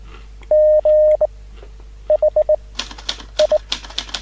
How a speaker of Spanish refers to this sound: Ah, ahí está llegando, llegando el telegrama. Lo mandó un código Morse nomás.